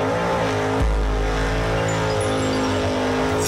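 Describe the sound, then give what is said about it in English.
A loud race car engine revs, its harmonic roar rising and holding steady with a deep low-end rumble, no voices present. “Milwaukee, start your engines.”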